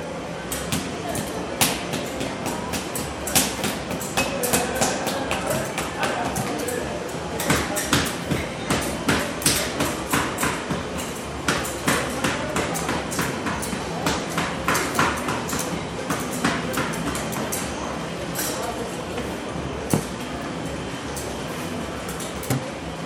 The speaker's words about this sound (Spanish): El mercado Cuauhtémoc se encuentra en la esquina de las calles Río Lerma y Río Tigris en la Ciudad de México. Cada semana se ejecuta en este espacio el ritual de compraventa de flores, verduras, frutas, carne, mariscos y pollo.